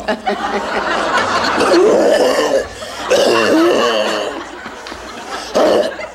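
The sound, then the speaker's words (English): A loud fit of sputtering coughs from someone who choked while drinking and talking, coming in several harsh bursts over a few seconds, with a chuckling, laugh-like edge and no words spoken. “You can't, you can't drink and talk at the.”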